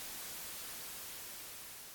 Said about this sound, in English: tried to use his walkie talkie, but all that comes back is static.